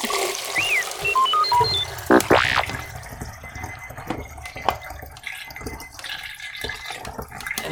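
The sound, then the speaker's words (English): A few short electronic timer beeps, then film developer is poured steadily out of a small film development tank with about 10 seconds of development time left, a continuous splashing trickle that carries on to the end. “So I start pouring out about this time.”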